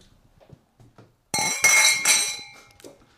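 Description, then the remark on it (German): Beer glasses clink together in a toast, a few bright strikes in quick succession, each leaving a clear ringing tone that lingers and fades, preceded by faint small knocks. “Also ich würde sagen, wir nehmen noch ein Bierglas hier, ne?”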